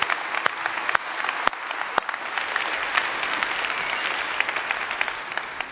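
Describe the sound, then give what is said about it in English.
An audience applauding to celebrate and thank the children present: dense, steady clapping that holds at an even level for the full stretch, with a few sharper individual claps standing out near the start and no voices. “I know we have most of them at nine, but for the kids who are here, can we celebrate them and thank them for being here?”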